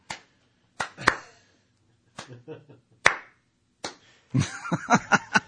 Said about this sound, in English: Let's give him a hand.